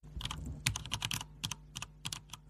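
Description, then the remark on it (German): Rapid typing on a computer keyboard as someone goes online, with irregular clicks of keys, fairly quiet, a quick burst of taps followed by scattered single keystrokes; no voices. “Ich gehe mal eben online.”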